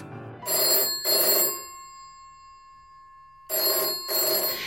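A telephone bell rings in two short double bursts, separated by a pause of about two seconds, with a faint tone lingering between; bright and clear, with no voices. It is the telephone through which Martin and Coretta first get to know each other.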